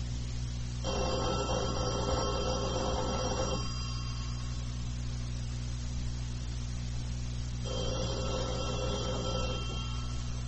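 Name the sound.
telephone ringing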